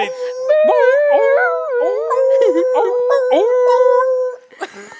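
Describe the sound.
A person imitates a beagle baying on the chase: one loud, continuous howl with a wavering, yodeling pitch, held for about four seconds before breaking off.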